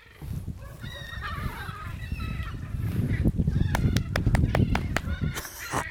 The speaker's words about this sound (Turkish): Hadi geç. Gel. Sizden çekiniyorlar martılar.